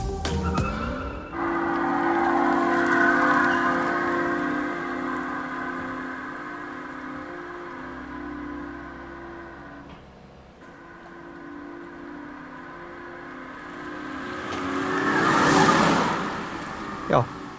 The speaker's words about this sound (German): Elektrisch halt, ne? Elektrisch, jo. Haben wir schon öfter gesagt, dass jetzt. Also wer daran jetzt wirklich erkennt, aha, das ist der Opel Mokka E, da muss ich sagen, ziehe ich meinen Hut.